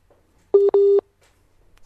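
A telephone line tone after a dropped call: two steady electronic beeps at one constant pitch, a short one then a longer one, loud against near silence with no talking.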